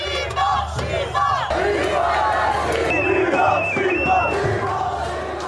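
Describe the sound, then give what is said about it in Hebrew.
A large crowd at a march of tens of thousands carrying flags and sticks chants and shouts together in loud, sustained unison a verse from the Book of Judges about Samson, altered to say Palestine instead of Philistines; many voices overlap in a rhythmic, rousing roar that stays strong throughout. “זה נשמע איזשהו שיר תמים, כאילו פסוק שלקוח מספר שופטים, שעומד שם אה, שמשון בין שני העמודים, ועשו לו איזשהו שינוי בפסוק, ובמקום פלישתים הפכו את זה לפלסטין, וכולם צועקים עם שימון!”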